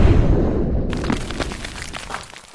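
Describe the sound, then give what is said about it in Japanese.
A loud explosion sound effect marking the Gingin Z sales company exploding: a deep rumbling boom that rolls into a sustained crackle of debris, filling the whole clip with no voices. “ギンギン Z の販売会社が、ただいま爆発しました。”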